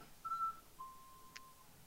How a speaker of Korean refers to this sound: 뒤에서 리코더 소리 들려요. 엄청.